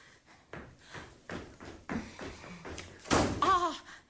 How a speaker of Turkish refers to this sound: Neden çarpıyorsun kapıyı?